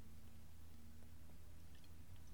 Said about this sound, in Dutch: Ja, ik nam maar even een slok van mijn bier. Oh. Dat vond ik wel eh, gepast.